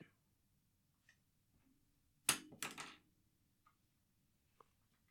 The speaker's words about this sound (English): Did you just throw your pencil? No, it's more of like like I dropped it on the desk.